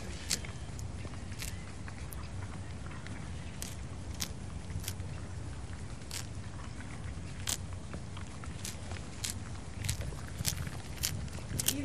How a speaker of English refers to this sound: No, it was eating grass at the time, so there's quite a nice noise of it tearing grass out of the ground.